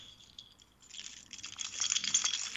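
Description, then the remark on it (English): A bunch of keys jingles and rattles, shaken as people did on Wenceslas Square to signal keys for change, starting softly and growing into a steady, bright metallic shaking that builds in loudness over a couple of seconds, with no voices. “Now, what that means is the keys keys for change.”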